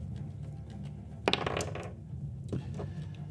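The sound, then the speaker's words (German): Dice clatter and tumble across a hard tabletop in a quick, rattling burst, then a few lighter clicks as they settle, against a low background hum; the dice are rolled for a monster in a tabletop role-playing game. “Ich werde für das zweite Monster werfen, was sich hier mit euch befindet.”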